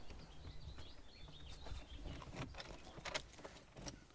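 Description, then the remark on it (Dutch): A key scrapes and turns in the door lock of a museum at the Bourtange fortress, giving a few sharp metallic clicks and rattles over a low outdoor hum, with no one speaking. “Oké, en jij hebt de sleutel? Ik heb de sleutel.”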